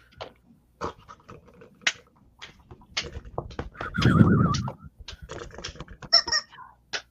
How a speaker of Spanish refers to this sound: Escucha, se oye el batir de alas de cientos de aves.